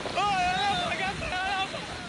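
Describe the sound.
A boat carrying young Tunisian migrants to Italy out at sea, with steady rushing wind and waves while several voices chant or sing loudly over the noise.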